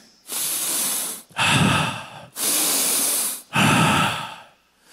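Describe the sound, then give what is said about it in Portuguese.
A person imitates the heavy, deep sniffing a demon made: four long, loud breaths alternating between hissy, high inhales and rougher, lower exhales, evenly paced, with no talking. “Essas fungadas que o demônio fez naquela hora.”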